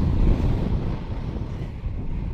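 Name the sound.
wind noise on microphone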